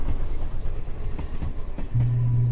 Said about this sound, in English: So Gunny, bring that train in.